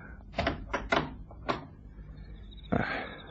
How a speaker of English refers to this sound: Open the door to the garden